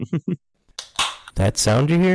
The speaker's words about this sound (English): That's the sound of opening up a refreshing cold one on a hot summer day.